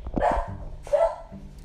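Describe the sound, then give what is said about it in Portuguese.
A dog barks twice in close succession, sharp and fairly loud, with a short gap between the barks and a low hum underneath. “E o cachorro aqui tá latindo, mas é isso, né?”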